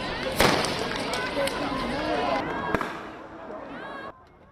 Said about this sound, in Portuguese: Bombas de gás lacrimogênio.